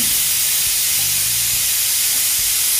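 A pressure cooker whistle hisses out a steady, loud stream of steam, a broad high-pitched rush holding constant for the whole stretch with a faint low hum beneath it.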